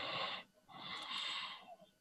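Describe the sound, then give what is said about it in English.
Heavy, wheezy breathing: a short raspy breath followed by a longer, drawn-out one, loud and airy with a faint whistle, and no talking. “Hey, Yeah, is, your bobblehead, breathing too?”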